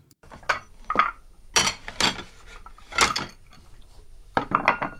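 Dishes and cutlery clink and clatter in a series of sharp, irregular knocks as they are washed and stacked during dishwashing, with no voices present.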